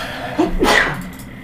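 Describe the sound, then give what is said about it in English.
A single sharp sneeze, a quick inhaled build-up followed by a bright, breathy burst, moderately loud, with no talking. “Bless you.”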